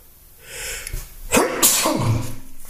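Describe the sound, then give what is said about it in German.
A loud sneeze preceded by a breathy inhale build-up, ending in a sharp burst with a brief voiced trailing sound, heard alone without talk. “Ein Nieser in Ehren”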